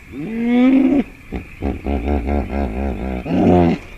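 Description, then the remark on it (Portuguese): A large animal's wheeze-honk call, loud: a drawn-out wheezing note, then a quick run of deep, rhythmic honking pulses ending in one strong blast. No one speaks. “Grunhidos e guinchos fazem parte do seu amplo repertório vocal.”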